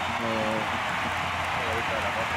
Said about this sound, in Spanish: Mira cómo aplauden los granadinos, ¿eh? Míralo, míralo, claro.